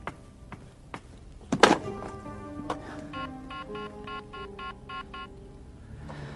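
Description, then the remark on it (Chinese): A few soft clicks and a sharp thump, then a quick, evenly spaced run of about eight short electronic keypad beeps as a phone number is dialed; no one speaks. “我打电话给他。”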